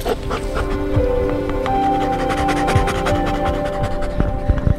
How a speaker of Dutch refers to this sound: dit is eh, Elvis. Mijn, eh, mijn eigen hond die eh, in opleiding is om ook mensen te gaan zoeken